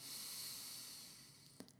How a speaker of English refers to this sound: Breathe out through the nose. If you have any congestion issues, you can just do it through the mouth as well. So just keep breathing deeply and intentionally through the nose keep doing what you're doing, driving, chopping an onion, walking the dog.